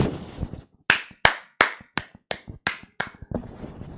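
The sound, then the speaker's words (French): A run of about seven sharp, evenly spaced hand claps in a steady rhythm, followed by a looser flurry of quicker claps, with a faint murmur before they begin. “Allez on applaudit.”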